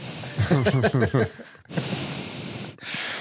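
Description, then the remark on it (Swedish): A voice imitates heavy, hoarse breathing on a phone call, starting with a few strained vocalized gasps, then two long loud breathy exhales with a brief pause between. “Jag kan verkligen tänka mig det där samtalet var också, att det var mest andning.”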